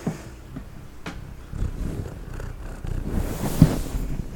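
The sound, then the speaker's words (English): A cat purrs right up against the microphone in a steady, low, rumbling drone that fills the whole stretch, with a few soft bumps and rustles and no one talking. “And now we're back for your regularly scheduled ASMR. From the cat.”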